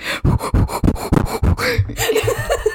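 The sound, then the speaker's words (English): Heavy, rapid panting, a quick run of about six harsh breaths in steady rhythm, then trailing into ragged, strained breathing, as if someone is struggling for air. “That's why you're mad because you can't breathe.”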